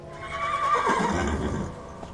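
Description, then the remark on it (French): A horse neighs loudly, a shrill whinny rising and wavering before trailing off into lower snorts over about two seconds. “Ils firent des tresses à la crinière des chevaux,”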